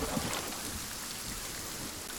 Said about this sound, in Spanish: Algo muy normal es la lluvia en este juego.